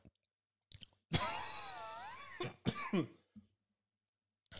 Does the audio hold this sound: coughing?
yes